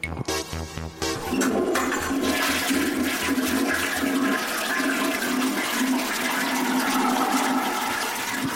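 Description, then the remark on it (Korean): A toilet flushes with a loud, sustained rush of swirling water. It begins with a brief clunk and gurgle, then settles into a steady whooshing roar that continues to the end, with no voices. “너무 심하게 내리네요.”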